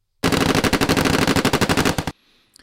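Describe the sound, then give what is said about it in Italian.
A loud, sustained burst of automatic gunfire from a firing exercise at Lake Hart in 2018, rapid evenly spaced shots for about two seconds, then cutting off abruptly into a faint echoing tail with a pop or two. “Questi rumori provengono da un'esercitazione di tiro a Lake Hart nel 2018.”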